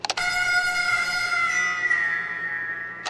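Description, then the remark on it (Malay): A single long, high-pitched scream from a cassette tape recording holds steady and loud for about three seconds, strained and piercing, with brief clicks just before it starts and right after it cuts off. “Ini adalah bunyi jeritan tu.”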